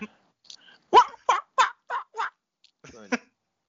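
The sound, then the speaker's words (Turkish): A person imitates a seal with a string of five sharp, nasal barking cries in quick succession, coming out more like a gull's squawks, followed by a shorter rasping call. “Oğlum bu Martı oldu. Fok değil ki.”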